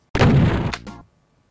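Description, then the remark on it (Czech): A loud explosion bursts in suddenly with a deep rumbling roar, crackles twice more as it trails off, and dies away within about a second, with no voices. “No tak, Počkej, to, to je výbuch.”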